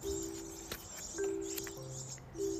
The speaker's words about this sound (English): Can you hear the birds expressing gratitude?